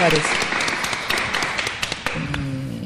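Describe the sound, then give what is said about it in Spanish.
An audience at el Trato applauds with steady, dense clapping that fills the whole stretch at a moderate level. A voice briefly joins in near the end. “Un aplauso de todos los que estamos aquí en el Trato”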